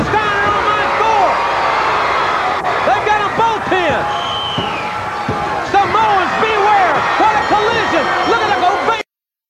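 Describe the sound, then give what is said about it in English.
A wrestling arena crowd cheering loudly and continuously as Rick Steiner lifts Death Row up onto his shoulders, with many overlapping shouts and whoops rising and falling, plus a few sharp thuds in the mix before it cuts off abruptly. “That's it's the crowd.”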